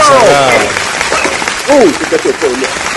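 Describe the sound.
Dense, steady applause from a large audience slowly rising to its feet, with voices talking and calling out over the clapping throughout and someone in the fifth row whistling.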